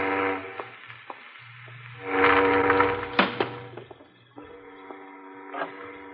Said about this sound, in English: There. I close the window.